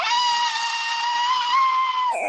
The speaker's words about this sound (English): I see some door is screeching on the floor. What kind of thing is that?